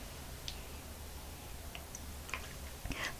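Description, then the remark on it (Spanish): Someone takes a morning sip of freshly served hot coffee without sugar: a few soft, scattered mouth clicks and then a brief, quiet slurp near the end, with no talking over a faint low hum. “Después de este sorbito sin una gota de azúcar”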